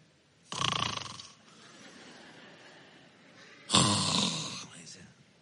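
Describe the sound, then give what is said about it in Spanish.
Someone imitates snoring with two loud, rasping snore sounds about three seconds apart, each a long rough inhale-like rattle, separated by quieter breathy noise. “Mi esposa le dice, ¿Cómo roncan?”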